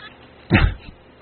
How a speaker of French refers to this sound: avec des bruits de chat et tout.